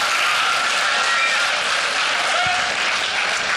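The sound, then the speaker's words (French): An audience in a school applauds after a question, a dense, steady wash of many hands clapping that holds at an even, fairly loud level for the whole few seconds, with no voices standing out. “Je vous félicite, hein, la première fois dans une école que j'entends applaudir après chaque question.”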